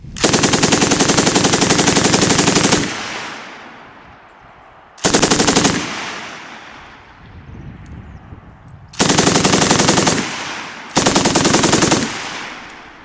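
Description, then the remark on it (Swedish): A KSB 58 machine gun fires four loud bursts of rapid shots, one long and three shorter, each followed by a rolling outdoor echo that fades between bursts. No one speaks. “För, för det är så här en KSB 58 låter.”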